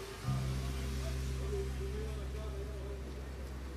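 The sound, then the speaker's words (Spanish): A steady, low engine rumble from passing traffic fills the whole stretch, droning continuously with a faint hiss above it, as cars move along a street while it is raining. “Oh, es que pasa los, se escuchan los coches de una forma muy rara.”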